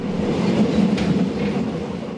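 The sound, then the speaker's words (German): Steady low rumble of a passenger train in Malaysia on a 36-hour journey, heard from inside a compartment, a continuous droning roar with faint rattling and no voices, constant and fairly loud throughout. “In Latschen oder schicken Schuhen richten sie sich am Abteil ein, mit Kindern an der Hand und riesigen Taschen dabei.”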